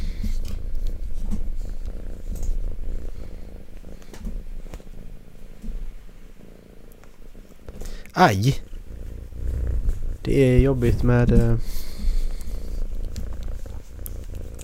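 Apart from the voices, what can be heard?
cat purring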